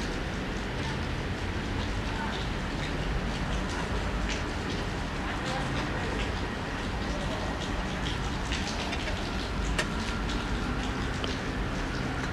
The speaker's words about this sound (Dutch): Hey. Ik weet niet of je kan horen, maar... Het is zaterdagavond. Ik ben in Rotterdam. Het regent.